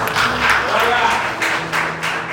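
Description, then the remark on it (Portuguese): Steady, dense applause from an audience at a church service fills the whole stretch, a loud crackling wash of many hands clapping with voices murmuring and calling out underneath. “Eu dei uma salva de palmas também”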